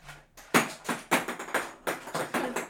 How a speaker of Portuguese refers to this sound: Ai, que maravilha, estes brinquedos bons que fazem barulho.